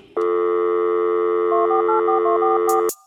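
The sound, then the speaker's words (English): A steady telephone dial tone hums, then a quick run of about eight touch-tone dialing beeps plays over it before everything cuts off with a click. “Pick up the phone. It's me.”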